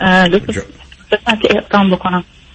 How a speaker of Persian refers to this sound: بله صداتون یه ذره قطع و وصل میشه بله. میشه گوشی رو نزدیک بگیرید